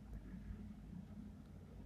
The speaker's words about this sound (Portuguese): essa porta, esse caminhão passando 4 horas da manhã, caralho.